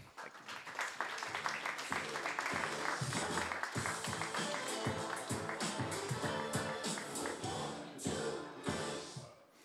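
An audience applauds steadily for nearly ten seconds, a dense crackle of many hands clapping at once, fairly close and loud, with a few voices faintly mixed in before it tapers off.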